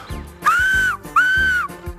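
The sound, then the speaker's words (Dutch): Two loud, sustained finger whistles blown on four fingers in quick succession, each swooping up briefly and then holding a steady shrill pitch for about half a second, with a low rumbling background underneath. “En aanvankelijk deed ik het op vier vingers en dan klonk het zo.”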